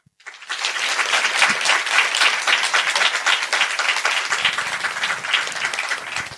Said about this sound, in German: Jetzt euer Applaus äh, von äh, für